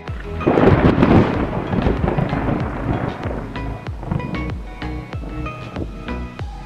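A loud, rumbling thunderclap swells early and slowly rolls away, with steady rain pattering throughout and scattered drips and taps.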